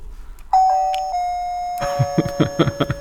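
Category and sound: household object, doorbell ringing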